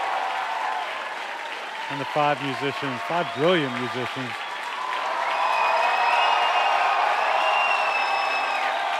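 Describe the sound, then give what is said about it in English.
A large concert crowd claps and cheers steadily throughout, a man's voice briefly shouts at the crowd in appreciation over the noise, then the applause swells louder with whistles and shouts in the second half. “shouting at the crowd in appreciation.”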